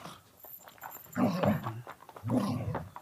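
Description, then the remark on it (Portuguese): A female dog growls playfully in two rumbling bursts, each lasting under a second, with a short pause between them and a quiet stretch before the first; an excited, happy growl, not a warning, while she is being asked to do tricks. “Você tá vendo, tá vendo esse rosnado? Também, também não é um rosnado tipo, sai daqui. É um rosnado tipo, da hora.”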